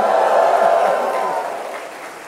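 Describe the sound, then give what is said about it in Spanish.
A church audience giving a shout of praise to the Lord together in a loud, sustained roar of voices with scattered clapping mixed in, gradually fading over a couple of seconds. “A ver, dele un grito de alabanza al Señor.”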